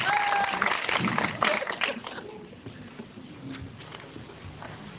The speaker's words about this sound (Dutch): Applaus, lieve mensen.